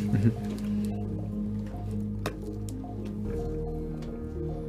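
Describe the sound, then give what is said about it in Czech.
A small deciliter tasting bottle, taken from a pocket, being opened: a soft squishy fumbling, then one sharp click of the cap, with faint liquid sloshing over a low steady hum and muffled voices. “Otvírám.”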